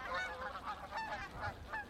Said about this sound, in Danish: Nogle gange samles de i store flokke for at flyve sammen. Måske du om efteråret har set nogle store flokke af f.eks. gæs komme flyvende hen over himlen.